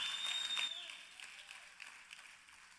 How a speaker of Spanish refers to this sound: Ah, yo no estaba esperando muchos aplausos en este mensaje.